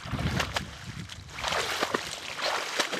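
People wade chest-deep through marsh water while setting up a platform to lure nutria, making steady sloshing and splashing with scattered sharp splashes and gurgles, continuous for a few seconds with no voices.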